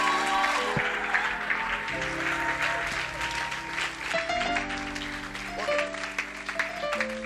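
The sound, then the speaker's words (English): A crowd at a church service claps steadily for people going back to their seats, a dense wash of applause that carries on for the whole stretch while sustained keyboard or organ chords play underneath. “Clap for them as they go back to their seats.”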